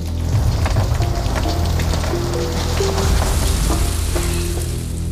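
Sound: heavy rain falling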